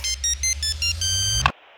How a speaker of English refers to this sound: After a glass and a half, I fall asleep and then my alarm goes off at 4:30 a.m.